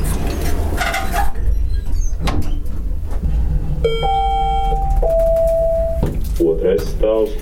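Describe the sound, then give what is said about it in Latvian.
Automatic doors closing at the toxicology and sepsis clinic of Riga East Clinical University Hospital in Riga, Latvia: a steady electronic warning tone steps from one pitch to another for about two seconds, followed by soft mechanical clunks over a constant low rumble. “Durvis aizveras.”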